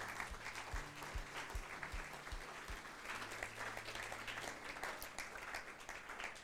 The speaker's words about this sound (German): Lass uns Gott einen Applaus geben an dieser Stelle. Come on, er meint es so gut mit dir.